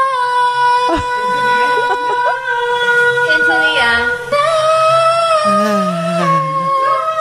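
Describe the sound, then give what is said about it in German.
A woman sings a hit song loudly and off-key in the shower, holding long wavering notes that slide unsteadily up and down in pitch, continuous for several seconds. “Sie stimmt einen Hit an.”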